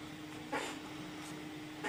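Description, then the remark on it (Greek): A dog whines in a couple of short, faint bursts against a steady low hum and background hiss, with no one talking. “Μπεμπά, κάτσε ήρεμα. Ναι. Λοιπόν, γκρινιάζει να ακούει τη φωνή σου.”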